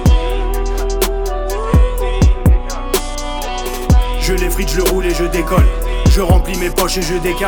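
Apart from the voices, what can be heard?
french rap song playing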